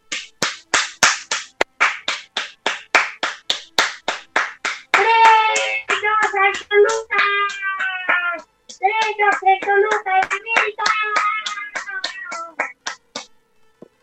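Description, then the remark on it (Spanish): Steady, rhythmic hand clapping, like a few people applauding after a poetry reading on the radio show Batas AM Radio, keeps going for the whole clip; about halfway through, voices join in over the claps, whooping and calling out. “¡Aplausos, por favor!”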